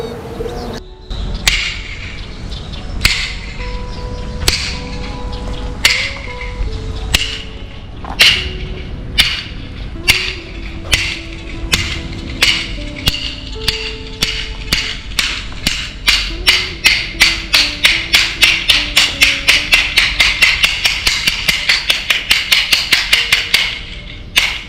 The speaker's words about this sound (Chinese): 刚刚我们听到的声音就是叫香的声音。那佛光山的法师跟同学啊，听到叫香的声音，他就知道吃饭时间要到了。那大家呢就会放下手边的工作，一起到斋堂圆满这个过堂的修行功课。